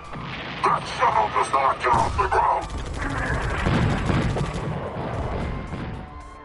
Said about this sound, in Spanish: Lejos, en alguna parte, oyó un sonido de disparos y voces de batarianos gritando. La masacre había comenzado.